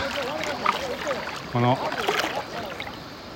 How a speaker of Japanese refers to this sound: 川の声聞こえるでしょうか、えー、ちょっと京都の山奥の由良川の源流ですね、えー、宮山町の由良川の源流のえー、とある場所で涼を求めて